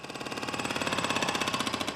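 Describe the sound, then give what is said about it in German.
A jackhammer drills during construction work in the St. Johanneskirche church in Mainz, Germany, in a rapid, steady stream of hard mechanical blows, loud, with no pauses across the short stretch and no voices. “Bauarbeiten in der Mainzer St. Johanneskirche.”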